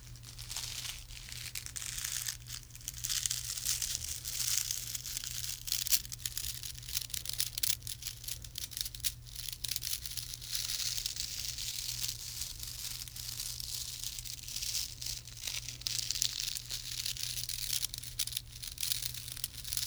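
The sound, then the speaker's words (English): A continuous dry, scattered swishing and crackling of tiny sticks brushed steadily across a snare drum, even in level, with a low steady hum underneath and no voices. “tiny, tiny sticks. So I'm hoping to get a scattered brush like sound from these sticks.”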